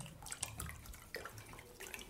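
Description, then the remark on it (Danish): Water splashes and trickles steadily into a glass for a couple of seconds, a continuous watery pour with small dripping accents and no voices. “Jeg skal lige have noget vand.”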